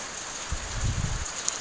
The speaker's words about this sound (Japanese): なんかずっと外開けてるとやっぱ寒いですね雨の音を聞きながら話そうと思ってたんですけど寒くなってきました、ね、今日雨雨で